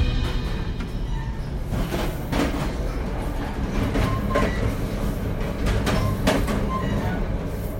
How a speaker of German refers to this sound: Wenn sich das hier für euch nicht nach einem deutschen ICE anhört, dann habt ihr damit absolut recht. Ich äh, befinde mich gerade im Zug vom Flughafen in die Innenstadt von Philadelphia.